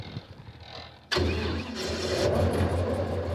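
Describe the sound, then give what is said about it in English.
An airboat engine is started by a biologist and suddenly roars to life after a quiet moment, then revs into a loud, steady, throbbing drone with a deep low rumble as the boat launches from a crumbling levee into Tulare Lake, California, to look for birds sick with avian botulism. No speech. “revs the engine of an airboat and launches it from a crumbling levee into Tulare Lake.”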